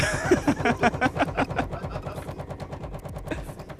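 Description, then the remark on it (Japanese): A long-used washing machine at a family home, its drum tumbling laundry, gives off a rapid, continuous rattling clatter of knocks and thumps, loud, easing slightly toward the end. No voices. “あのあれよね洗濯物がさガタガタガタガタガタって回ってねなってる音だよねわかります実家で長年使っている洗濯機が頑張ってくれてる音です”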